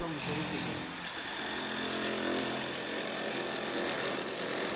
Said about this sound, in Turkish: Hilti ile duvarlarda sıva sökümü yapılması tarafımızca da uygun görülmemekte olup gereken müdahale yapılmış ve yapı müteahhitinin dikkati çekilerek gereken işlemlerin yapılmasına başlanmıştır.